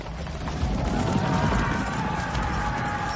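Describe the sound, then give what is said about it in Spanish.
Horse hooves clip-clop in a quick, steady rhythm, loud over a dense, rumbling background, as if several cavalry horses are moving together throughout. “Nace la caballería.”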